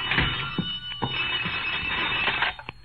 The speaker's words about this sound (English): It was past two when I got back to my apartment, and the phone was screaming for help.